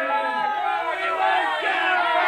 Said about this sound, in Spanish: Los gritos de horror y desesperación en los marinos del Eso Maracaibo se dejaban escuchar cuando vieron que un carro quedó con las dos ruedas en el aire a 40 metros de altura.